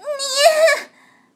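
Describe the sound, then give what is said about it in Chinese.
A human voice, voicing a cat character who laughs while meowing in a told story, imitates a cat's meow: one drawn-out, high, tonal call that swells slightly in the middle and then drops away, lasting under a second. “咪咪一边笑一边喵的叫了起来。”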